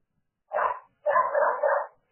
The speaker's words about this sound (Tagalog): Na-record yung aso.